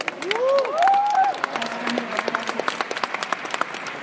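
An audience breaks into steady applause, dense overlapping claps filling the whole stretch, with a few voices calling out and a brief whoop rising over the clapping near the start.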